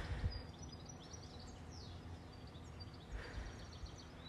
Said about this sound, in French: Entendez-vous ces doux bruits d'oiseaux Et pas cette voiture qui passe, attendez. Ah ça, ça pique les oreilles. J'aimerais bien pouvoir enregistrer les oiseaux.